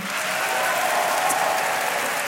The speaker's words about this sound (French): Alors par applaudissement, qui est contre ah, C'est les gens qui ont scolarisé dans le privé. par applaudissement, qui est pour